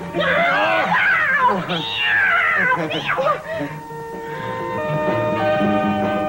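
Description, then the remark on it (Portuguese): A person imitates a cat, letting out a few loud, drawn-out, wavering meows, which trail off into a steadier, sustained vocal tone. “Depois ele vem como um gato.”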